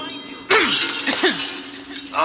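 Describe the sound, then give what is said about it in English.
Mirror glass shatters with a loud, sudden crash, then a dense spray of tinkling shards rains down for a couple of seconds, bright, with no voices. “Just Break the Mirrors. Break them and I can find you.”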